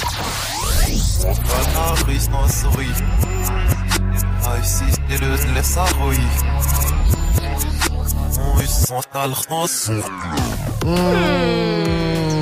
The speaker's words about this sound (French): Mais oui, le reverse, c'est très facile. C'est un son qui a été mixé à l'envers. Il faut le remettre à l'endroit et on te laisse une deuxième chance avec un deuxième extrait.